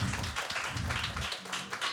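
An audience applauds steadily, a dense wash of many hands clapping at an even, sustained loudness for the whole two seconds, with no voices standing out.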